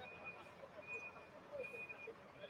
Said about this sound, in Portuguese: É só o som natural aí, ambiente, dos caminhões fazendo alguma entrega ali do lado de fora.